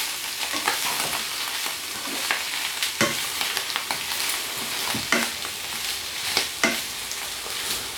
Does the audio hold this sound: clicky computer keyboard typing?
no